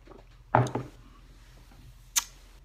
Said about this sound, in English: Let me take a sip.